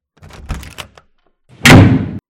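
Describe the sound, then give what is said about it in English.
A door is handled with a few short clattering knocks, then pulled open with a loud thud that rumbles briefly before cutting off. No one speaks. “I'll go get the door.”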